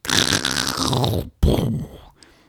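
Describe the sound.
A voice imitates trees cracking and crashing down in a strong windstorm at a campsite between two lakes: a long, rasping, creaking groan, a brief gap, then a shorter crashing burst that fades away, loud.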